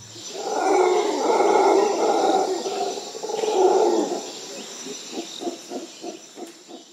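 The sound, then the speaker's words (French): A nighttime jungle chorus of insects, birds and monkeys: deep, droning howls of monkeys rise and fall over a steady high insect buzz, followed by a series of shorter rhythmic calls near the end. “Euh, le soir entre les insectes, les oiseaux, les singes, euh, on est dans on est dans la jungle quoi.”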